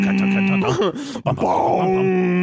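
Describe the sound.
A voice imitates a deep, blaring movie-trailer boom, a loud droning groan held for over two seconds, briefly broken midway, then swelling again.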